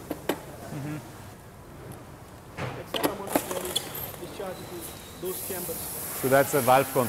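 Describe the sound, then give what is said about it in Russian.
A steady airy hiss of a station automatically inflating a packing bag with air and controlling the pressure inside, with short bursts and clicks, while a man speaks over it toward the end. “Эта станция автоматически наполняет пакет воздухом и контролирует давление внутри.”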